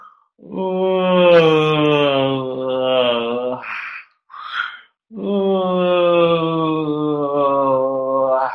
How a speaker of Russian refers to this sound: Поэтому давайте сейчас с вами еще несколько раз зевнем, чтобы убрать все напряжение отсюда. Прямо вместе со мной.